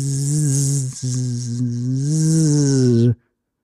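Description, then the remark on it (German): A loud droning buzz of a fly lost in a house, seemingly imitated by a voice, runs for about three seconds with a brief break near the first second before cutting off abruptly. “ah, irgendwo hier in meinem Haus hat sich eine Fliege verirrt.”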